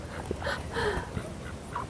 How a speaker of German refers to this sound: Ob die Ente da quakt. Entschuldigung.